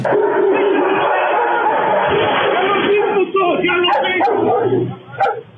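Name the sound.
dogs barking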